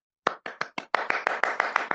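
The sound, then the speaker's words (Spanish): Applause after a presentation, about eleven sharp, distinct hand claps, starting with a few spaced beats and then quickening into a faster, even rhythm. No one speaks. “Aplauso, aplauso, porque eso lleva hasta aplauso.”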